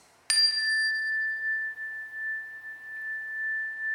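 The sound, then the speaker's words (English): A single bright cleansing chime is struck once and rings on in a long, steady, high-pitched tone, its shimmering overtones fading quickly while the main note sustains alone without any talking. “Let's begin with three cleansing chimes.”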